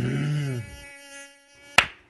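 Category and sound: insect, mosquito buzzing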